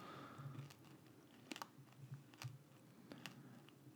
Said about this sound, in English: Is that a pot brownie that you're chewing on, or is that Mm-mm. that's the dark chocolate covered quinoa. quinoa?